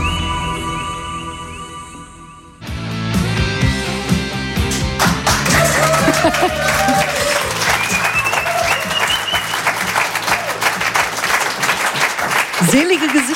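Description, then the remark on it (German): Loud, dense audience applause for a song, many clapping hands breaking in after a couple of seconds and going steadily to the end, with some voices and tonal sounds mixed in underneath. “Wo, wofür wofür gibt es jetzt Applaus?”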